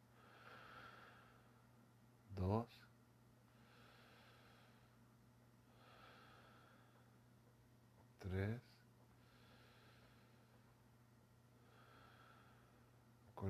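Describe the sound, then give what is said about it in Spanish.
Slow, deep breaths in and out repeat at an even, unhurried pace, soft, over a low steady hum, with two brief louder bursts breaking in along the way. “Así que acuéstate, relájate y respira profundo. Respira conmigo.”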